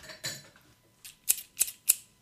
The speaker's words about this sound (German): Wir haben geschnitten, wie ihr wisst. Ihr hört jetzt hier die, Sch die Schere. Schnippschnapp.